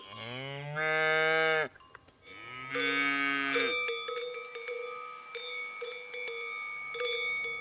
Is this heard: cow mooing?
yes